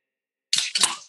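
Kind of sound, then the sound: food or drink, beer can cracked open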